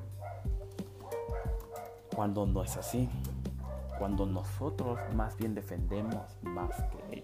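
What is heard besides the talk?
dog barking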